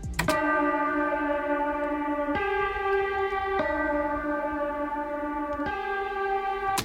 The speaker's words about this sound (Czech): to jsou pičlí dva samply, kde, kde jeden z nich byl jakože church bell, prostě zvon. A tohle je pičnutý nahoru dolů, tak aby to sedělo do té melodie.